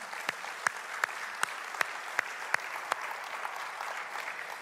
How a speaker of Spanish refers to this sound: Vamos a darle ese fuerte aplauso al Señor esta mañana.